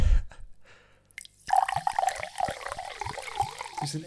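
Water drips and trickles from a fancy glass bottle, a run of small hollow plinks and gurgles, following a brief quiet stretch and continuing steadily to the end.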